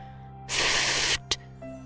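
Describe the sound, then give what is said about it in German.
A tiny little man blows out a tailor's fire: a forceful, breathy whoosh lasting under a second, followed by one short, sharp puff, with no talking. “mit einem Male ein winzig, winzig kleines Männchen und sagte Schneider, Schneider, Schneiderlein, ich blas dir aus dein Feuerlein.”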